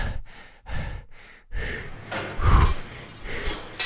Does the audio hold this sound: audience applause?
no